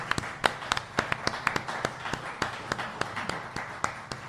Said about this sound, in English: Please give him a round of applause for joining us today.